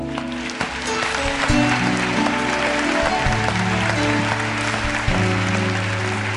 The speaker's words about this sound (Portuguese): Aplauda o Senhor, amém.